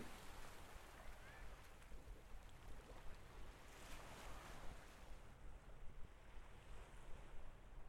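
Surf washes steadily over a rocky shore at Le Dourven, with stones rattling and hissing beneath the waves, while a gusty wind rumbles across the microphone throughout.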